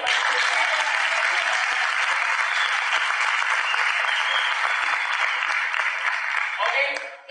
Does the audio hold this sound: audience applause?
yes